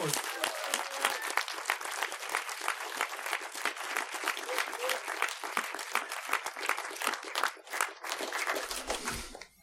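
Steady audience applause in a cinema hall, a dense patter of many hands clapping at a fairly even level for nearly ten seconds, with a brief dip near the end before it fades.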